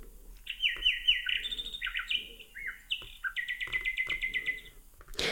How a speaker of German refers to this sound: Ja, Kohlmeise, Elster, die Nachtigall spiele ich noch vor.